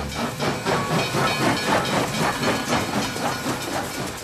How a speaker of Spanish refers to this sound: Pues suena tren, si suena tren, si parece un tren, es que es un tren.